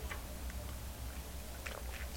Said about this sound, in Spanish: El cafecito de lunes siempre, siempre tiene ese sabor a reencuentro, así que lo disfruto mucho más después de la pausa de sábado y domingo y ahora me voy a dar el primer sorbito del día.